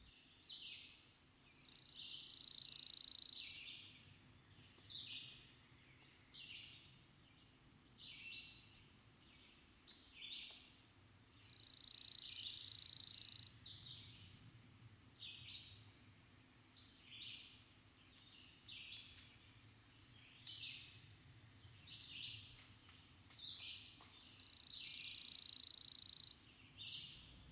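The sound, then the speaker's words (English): In a dense undergrowth of spice brush, witch hazel and alder, a worm-eating warbler repeats its dry, buzzy trill three times at even intervals, each burst lasting a couple of seconds, with softer chirps and faint insect-like calls filling the gaps. “in a dense undergrowth of spice brush, witch hazel, and alder, I meet the worm eating warbler”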